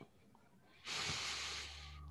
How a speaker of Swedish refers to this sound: Så om vi tar ett djupt andetag.